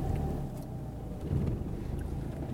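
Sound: car driving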